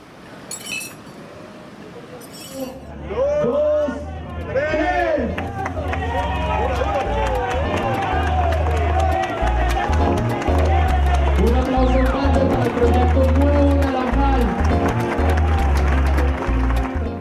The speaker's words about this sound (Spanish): Una noche de enero de 2014. Escuchamos los sonidos de un evento social en el que estuvieron presentes varias personalidades de la administración pública local.